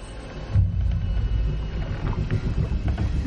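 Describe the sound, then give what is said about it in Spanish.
A boat surges up out of lake water with deep, rumbling sloshing and splashing that swells after a moment and stays steady as it draws nearer to the people. No voices. “Una barca emerge y se acerca a ellos.”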